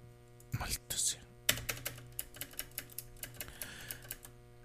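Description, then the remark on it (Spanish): Clicky keystrokes on a mechanical keyboard tap out in a steady rhythm, crisp, with a brief burst of louder clatter near the start and a low hum underneath. “Ah, amor a los teclados mecánicos.”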